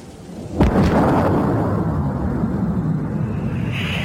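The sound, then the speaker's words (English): A sonic boom from a British-built jet-engine car driven by Andy Green to a 763 mph land speed record in the Nevada desert: one sudden, sharp crack after a brief low hush, then a long, loud rolling rumble that lingers and slowly settles. No voices. “In the Nevada desert, Green piloted the car to a land speed record, 763 miles per hour, breaking the speed of sound.”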